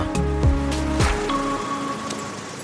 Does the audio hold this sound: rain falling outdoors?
yes